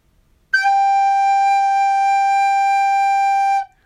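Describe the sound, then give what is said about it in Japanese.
A recorder plays one sustained high note, sol (G), for about three seconds, steady in pitch and loud, starting and stopping cleanly with no one talking. “【リコーダー】ドレミファソラシドを鳴らすコツ”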